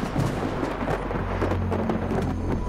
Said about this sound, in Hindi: लोग कुछ समझ पाते इससे पहले जहाज एक भयंकर तूफान में घिर गया जो लगभग 12 घंटे तक चलता रहा